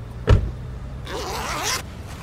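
A man opens a case holding banknotes: a sharp click, then a zipper drawn along for under a second with a scratchy, rising and falling rasp. No voices.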